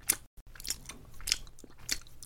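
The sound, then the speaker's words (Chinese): A dog, Chaichai, licking off saliva that another dog left on its body: about four wet, smacking lapping strokes in a steady rhythm, moderately loud, with soft rustling between them and no voices. “我在把刚刚那只狗沾到我身上的口水舔掉啊！”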